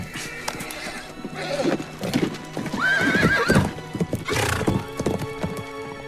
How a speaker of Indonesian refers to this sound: Keduanya segera memacu kudanya dengan kencang.